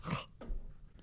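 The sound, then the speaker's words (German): A single sharp sneeze, a loud, hissing burst that cuts off quickly, followed by a brief breathy exhale and a quiet moment. “Gesundheit.”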